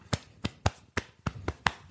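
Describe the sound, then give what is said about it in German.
A person pats their own shoulder eight times in a steady, quick rhythm, each pat a soft, dull slap, with no talking in between. “Erst einmal muss ich mir selbst auf die Schulter klopfen.”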